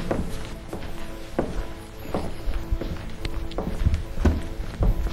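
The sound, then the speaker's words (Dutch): Footsteps walk at a steady, unhurried pace across a hard floor toward a scale model, about eight clear heel strikes, with a soft background hum and no talking. “als we dan weer naar de maquette lopen?”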